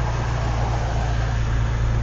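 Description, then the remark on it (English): A steady, low engine hum fills the inside of a car as it idles in traffic, with a constant muffled rumble and faint road noise underneath, unchanging throughout and with no voices. “So, yeah, we're in a car right now. I hope you can hear that. Oh, we're in traffic too.”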